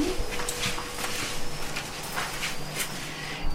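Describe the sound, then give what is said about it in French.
Young swifts chirp softly to one another in short, repeated high-pitched bursts, scattered irregularly over a steady background hiss, not loud. “Et on les entend chantonner entre eux, en fait.”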